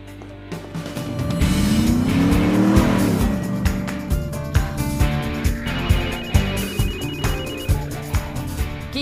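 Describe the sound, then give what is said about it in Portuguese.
A telephone rings in quick repeated pulses, moderately loud, following a car engine revving and tires squealing at the start; no one speaks. “Aí me desculpa pelo jeito que eu atendi o telefone.”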